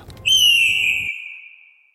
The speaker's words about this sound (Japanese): ああ一番鳥だ夜明けですね